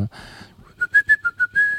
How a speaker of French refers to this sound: Euh, et comme j'ai pas trouvé le générique de Monsieur Propre sifflé, je voulais, je voulais l'enregistrer me le pitcher un peu, genre.